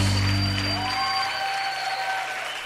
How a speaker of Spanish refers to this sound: Bendice al Señor con tu aplauso, vamos.